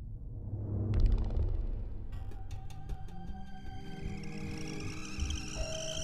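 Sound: kettle whistling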